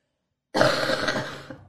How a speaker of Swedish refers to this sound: Ja, för att jag kommer behöva hosta mm. nu.